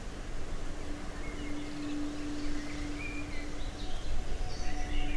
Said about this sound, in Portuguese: Enquanto isso, os pássaros da ilha nos presenteiam com seu espetáculo de cores e sons.